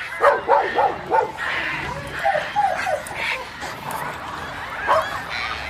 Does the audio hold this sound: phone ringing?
no